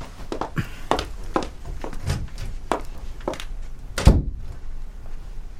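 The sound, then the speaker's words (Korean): Soft, uneven knocks and shuffling lead into a single solid door closing, a low heavy thunk with a brief latch click, after which the sound drops to near quiet. “문이 닫히고 노유경은 주먹을 꽉 쥐었다.”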